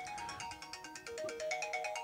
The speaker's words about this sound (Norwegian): Det hender det ringer i telefonen, ja.